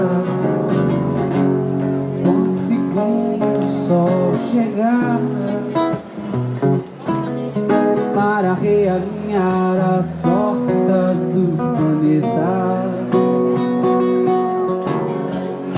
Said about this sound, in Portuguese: Todas as músicas que você vai ouvir aqui, incluindo esse sucesso da MPB que estava tocando, foram gravadas diretamente da Avenida Paulista.